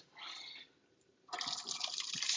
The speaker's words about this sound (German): Ähm, ich nehme die jetzt mal hier vom Herz, mache die mal aus. Und ich gieße die jetzt hier schön in dieses, äh, in dieses Sieb, in meine Spüle.